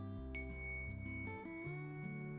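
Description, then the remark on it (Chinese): A small Tibetan singing bowl is struck once, giving a bright, high metallic ring whose shimmering overtones sustain steadily over a low, continuous tonal hum. “那其实敲击颂钵和铜锣，比如说你现在就可以听到我的一个迷你颂钵的声音，”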